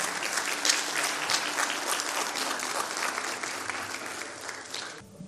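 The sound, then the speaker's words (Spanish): Sustained audience applause, dense and steady clapping from many hands that holds at an even level for several seconds before cutting off abruptly. “El aplauso es para ustedes.”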